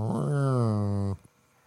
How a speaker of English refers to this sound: you pull the tap towards you, and then it pours out the beer that's in there